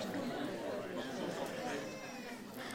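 Several audience members in a hall call out at once, answering a question about what is precious to them, overlapping into a steady, moderately loud babble of crowd chatter with no single voice standing out.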